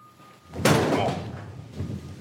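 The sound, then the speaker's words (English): In an interrogation room, Batman slams the Joker's head down onto a table: one sudden, loud, heavy thud with a brief rumbling decay, then a fainter knock a second later. No one speaks. “The lights change, and we see that Batman is standing behind the Joker and he smashes the Joker's head on the table.”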